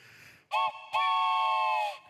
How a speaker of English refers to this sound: Does anybody know what I'm holding in my hand? Yeah, if you've seen these before, it's a train whistle. And so let's, I don't know how this is going to work with my mic, but let's see if you can hear it.